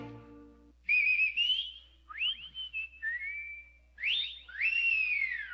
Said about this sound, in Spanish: Otras veces solo hay gritos y chiflidos.